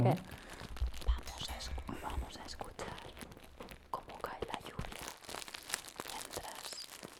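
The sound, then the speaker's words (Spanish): Dense crinkling of paper or plastic, like something being unwrapped, rustling and crackling continuously at moderate loudness, with faint ASMR-style whispering mixed in. “Parece un niño manco abriendo un regalo.”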